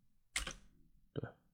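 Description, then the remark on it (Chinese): Two sharp computer mouse clicks, about three-quarters of a second apart, each a quick crisp snap with a slight double tap. Otherwise quiet, with no talking. “这后边有个啥？鼠标。”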